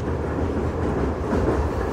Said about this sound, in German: Wir sind in einem Zug, glaube ich. In einem Zug? Hört sich zumindest so an.